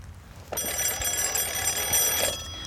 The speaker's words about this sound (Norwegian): Så ringer det i felttelefonen han har med seg. Det er soldaten oppe i OP-en like ved.